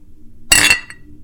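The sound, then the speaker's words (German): Glasses clink together in a toast, one bright, ringing chime that hangs briefly before a faint second tinkle follows. No one speaks. “Das klang richtig schön. Warum hast du nicht getrunken?”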